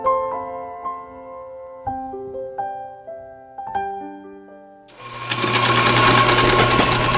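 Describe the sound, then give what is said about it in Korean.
Gentle plucked melodic notes play for about five seconds, then a coffee grinder kicks in with a loud, steady, buzzing whir of beans being ground before they go into the coffee machine, continuing to the end. “지금 머신기에 넣기 전에 온도를 갈아주고 있는 작업을 하는 중입니다.”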